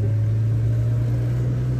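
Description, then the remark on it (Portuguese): A steady, low engine drone from inside a moving car driving to the city centre, with a constant hum and soft road rush underneath, continuous and even throughout with no voices. “Em tese disse o podcaster enquanto está indo para o centro com, com a esposa, né? De carro.”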